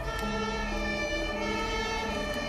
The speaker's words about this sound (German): Auch Arthur hat die Sirene gehört und schaut aufgeregt in die Richtung, aus der ihm gerade ein großes rotes Drehleiterfeuerwehrauto entgegensaust.